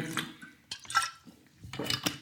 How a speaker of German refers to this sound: Kurzen Schluck Wasser.